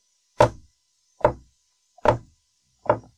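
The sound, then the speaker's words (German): Four sharp, hard strikes of a high-heeled shoe against the floor, evenly spaced about a second apart, fairly loud with a short woody ring after each. “Jetzt schlagen wir mit dem hochhackigen Schuh auf den Boden.”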